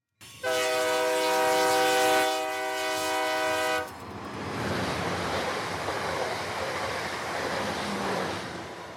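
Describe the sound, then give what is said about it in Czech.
At Prague main railway station, a loud, sustained train horn blares for about three seconds, then cuts off, leaving a steady rushing rumble of railway noise that carries on to the end. Nobody speaks. “Protože ještě nejvíce na tom vtipný to, že ta historka se odehrála na hlavním nádraží v Praze.”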